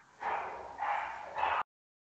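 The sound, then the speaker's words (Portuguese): Several neighbor's dogs bark in three long, overlapping bursts, the barks run together and sound muffled, with no one talking before the noise cuts off abruptly. “Olha os cachorros Não. do vizinho da Fê, gente.”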